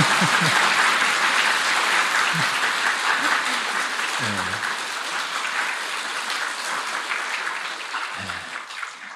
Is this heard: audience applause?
yes